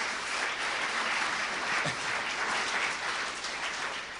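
Steady, dense applause from a church audience welcoming a retired pastor who is the guest preacher. It is a continuous wash of many hands clapping at an even loudness throughout, with no voices standing out.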